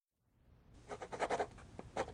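A quill pen scratches across parchment in a quick run of dry, papery strokes, irregular in rhythm and moderately loud, with no voices.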